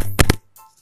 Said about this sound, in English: Sorry, I dropped the phone, guys.